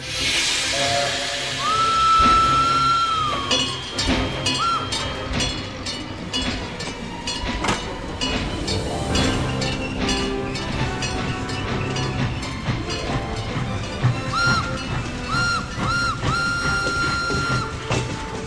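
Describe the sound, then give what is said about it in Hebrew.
A locomotive sounds its horn in a couple of sustained tonal blasts, one early and one near the end, over the continuous clatter, rumble and hissing steam of a moving train. No voices. “נא הקטר, תן לנו בצופר.”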